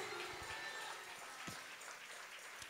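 A church audience breaks into sustained applause for God during a sermon, a dense steady wash of many hands clapping at an even level throughout, with no voices standing out.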